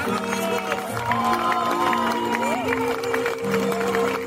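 An audience applauds steadily for several seconds, a dense wash of clapping mixed with cheering crowd noise, with some sustained tonal sounds running through it.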